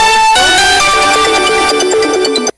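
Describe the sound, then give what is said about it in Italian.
A phone rings with an incoming call, a bright electronic ringtone melody, loud, stepping through a few tones for about two and a half seconds before stopping abruptly. No voices. “tante telefonate stanno arrivando”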